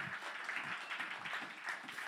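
A crowd breaks into applause for one of the pastors, a steady wash of many hands clapping at once with a few faint voices mixed in, holding at an even level for a couple of seconds.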